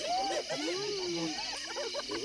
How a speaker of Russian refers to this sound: Эй, смотрите, можно подумать, все звери и птицы этого леса сюда сбежались.